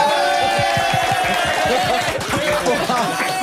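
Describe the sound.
A steady burst of crowd applause, dense and continuous for a few seconds at an even loudness, with voices and chatter mixed in underneath.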